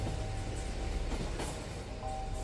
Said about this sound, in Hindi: दिल की तेज़ी से धड़कने की आवाज़ अब ट्रेन के पटरियों पर गरजने की आवाज़ से ज़्यादा तेज़ हो चुकी है